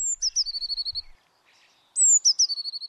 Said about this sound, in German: Seit Tagen trillert, pfeift und singt es in den Bäumen. Mit dem Frühling sind viele Vögel in die Region zurückgekehrt, doch viele finden keinen Platz zum Nisten, weil ihr Lebensraum zunehmend zerstört wird.